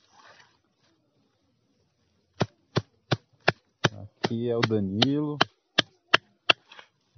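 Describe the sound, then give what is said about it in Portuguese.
A machete chops grass to mulch a vegetable garden in a quick, steady series of about a dozen crisp strikes, each sharp and dry, while a man briefly speaks partway through. “O barulho que vocês estão ouvindo aqui é o barulho do facão picotando aqui a grama para forrar a horta.”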